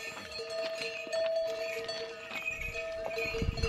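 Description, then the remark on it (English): Bells attached to pack animals clank and ring continuously as they walk up the valley towards Everest Base Camp, their metallic tones overlapping in an uneven jangle with soft hoof steps underneath. No one speaks. “so they have bells attached to them”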